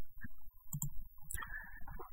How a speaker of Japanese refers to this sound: そしてキーボードがうるさいっていう。